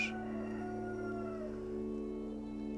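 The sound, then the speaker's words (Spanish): A rooster crows in one long, drawn-out call that slowly falls away, heard over a steady low background drone with no voices. “Los lamentos de sus seguidores malheridos se mezclaban en el aire con el canto de los primeros gallos.”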